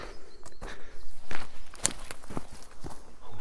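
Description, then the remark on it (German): Steady footsteps crunch along an outdoor path beside a long, drawn-out pond at an unhurried walking pace, moderately loud, with a faint open-air background and no voices. “Ich laufe hier diesen langgezogenen Teich entlang.”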